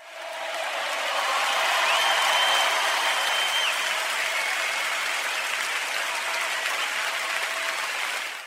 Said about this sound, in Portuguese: Palmas pela referência para Zelda.